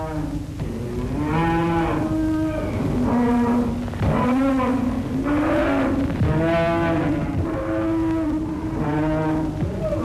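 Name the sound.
cows mooing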